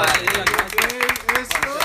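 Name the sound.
applause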